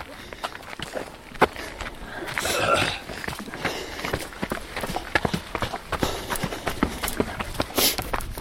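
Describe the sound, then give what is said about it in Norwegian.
Footsteps of several people walking, not running, a steady, slightly irregular patter of overlapping steps with crisp, scuffing impacts and no talking. “Lage lyd når man springer, ikke når man går, som vi gjør nå.”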